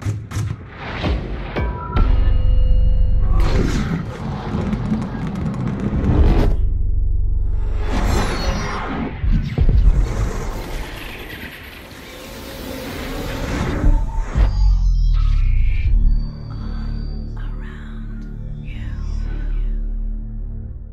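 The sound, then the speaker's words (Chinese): A cinematic Dolby Atmos surround-sound effects demo themed around a sphere: loud sweeping whooshes, deep booms and rumbling bursts surge and swirl in succession, settling into a low humming drone at the end, with no talking. “那我们现在就来完整的听听这一段以球体为主题的杜比环绕音效。”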